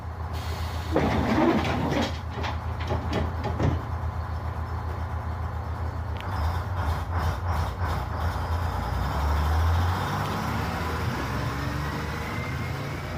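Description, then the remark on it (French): An old city bus engine rumbles steadily, with a deep low drone, rattling mechanical clicks and knocks, and a rising whine as it revs partway through. “Moi, je dirais que c'est surtout, euh, ben, quand j'étais jeune, c'était surtout l'attrait du véhicule et le son du moteur.”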